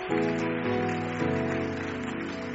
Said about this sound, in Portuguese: Queria que a gente recebesse esse homem de Deus com a salva de palmas para a glória de Jesus.